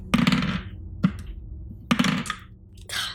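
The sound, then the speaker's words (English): Dice clatter across a hard table in a few quick bursts, sharp knocking impacts followed by brief rattling tumbles, fairly loud with no voices. “Finally, a dice that likes me.”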